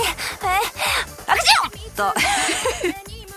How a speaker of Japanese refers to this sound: 今のくしゃみね というわけであのねすごいんですよ花粉が